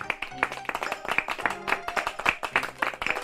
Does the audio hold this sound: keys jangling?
no